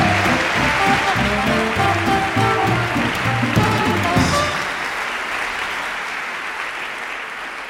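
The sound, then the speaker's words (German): An audience in Berlin claps loudly and steadily to welcome Chin Meyer, a dense crackling wash of applause with music playing underneath for the first few seconds, then the clapping continues alone and slowly thins. “Und den begrüßen wir jetzt mit einem wahnsinnigen Applaus.”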